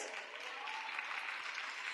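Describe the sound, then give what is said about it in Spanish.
An audience claps steadily for the men present for a couple of seconds, a dense, even wash of many hands with no voices standing out. “Y Venga, otro aplauso para ellos.”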